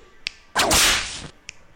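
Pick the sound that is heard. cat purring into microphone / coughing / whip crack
whip crack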